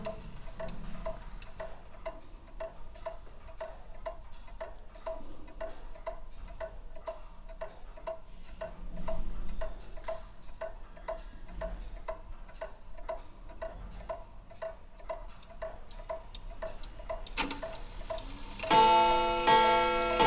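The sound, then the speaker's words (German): A pendulum clock ticks steadily, its even tick-tock repeating, until a louder, brighter metallic sound breaks in at the very end. “Aber es gibt so, so Standardgrößen wie das Sekundenpendel, das dann Meter ist.”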